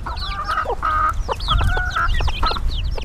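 Several chickens roaming in the shade under trees on a dusty plot of about 1000 square meters cluck and chatter in overlapping bursts, with a steady low outdoor rumble beneath and no voices.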